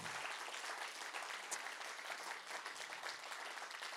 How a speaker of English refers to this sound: when one claps, everybody claps. All right? So we make that rule. The young people love that because they just clap in random places and then everybody starts clapping.